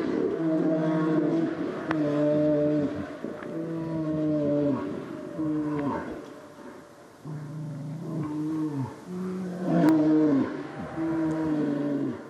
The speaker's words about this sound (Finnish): Ei, radiovastaanottimessani ei ole mitään vikaa. Tämä on karhu, joka möyryää kuhmossa.